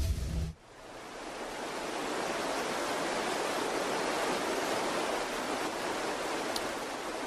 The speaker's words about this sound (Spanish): ¿Qué es lo que estamos escuchando? Este tema relacionado con el agua de nuestra historia sonora. Pues sí, es esto, ¿no? El ruido del mar, de las olas, del agua.